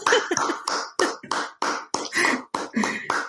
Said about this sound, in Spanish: Pues nada, yo, yo desde, desde aquí te brindo este caluroso aplauso.